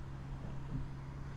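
A steady, low engine rumble and muffled road hum of road traffic heard from inside a car stuck in traffic, quiet and continuous with no voices.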